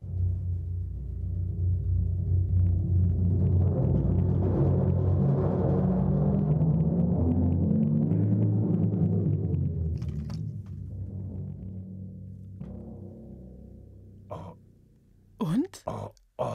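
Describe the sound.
A deep, rolling drum rumble imitates thunder, swelling loudly for about ten seconds before slowly fading, followed by a few sharp knocks at the end.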